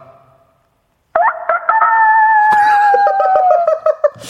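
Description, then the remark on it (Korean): A caller from Siheung, Gyeonggi Province, on a phone call imitates a rooster's crow as a greeting: one long, loud, drawn-out call with a stuttering start that slides gradually downward in pitch and ends with a brief breathy trailing note. “우리 4 1 0 8에 제가 뻐꾸기로 인사드릴 테니까 닭으로 인사해 주세요.”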